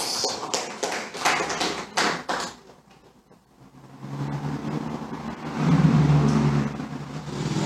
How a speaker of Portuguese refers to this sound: Glória a Deus. Aplauda ao Senhor. Aleluia.